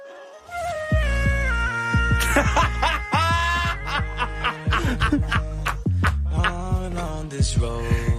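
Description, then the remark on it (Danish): A dog's howls, pitch-corrected with autotune into a stepped, synthetic-sounding melody, ring out loud over a steady backing track, with short yelping phrases following one another for several seconds. “Maggie synger bedre igennem autotune.”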